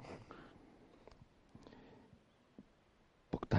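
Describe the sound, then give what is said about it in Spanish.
A few soft, scattered keyboard clicks tap out irregularly over a quiet hum, ending in a brief, louder cluster of keystrokes. “El teclado”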